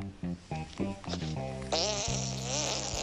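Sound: fly buzzing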